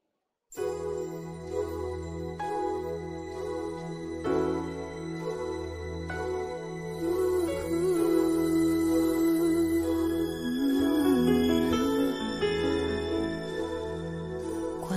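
Instrumental intro of an Italian pop song with a steady pulsing bass beat, sustained keyboard chords and bright chiming bell-like tones, building fuller and louder toward the end, with no voices.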